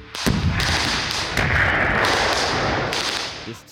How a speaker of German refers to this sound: Immerhin hört man dort eine Explosion, die genau dieselbe Audiospur hat wie ein Video aus Finnland.